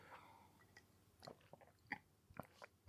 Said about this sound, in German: Schmatzlaute, die, die entstehen bei jedem, wenn, wenn, wenn er redet oder wenn man zu wenig trinkt. Deswegen ne, nehme ich jetzt mal einen Schluck.